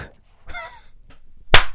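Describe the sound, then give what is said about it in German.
A single sharp hand clap rings out loud and bright, following a brief stretch of faint, harmonic-tinged noise; no one speaks. “Ja, das habe ich auch gehört, dass ich geklatscht habe.”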